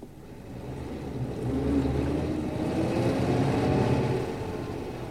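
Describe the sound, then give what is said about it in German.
A car engine hums steadily as the vehicle drives along in the evening on the way to the Towers, its low rumble swelling louder toward the middle before easing off slightly, with no voices present. “Und dann kam der Abend, an dem wir nach der Towers fuhren.”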